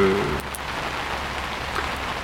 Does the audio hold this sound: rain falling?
yes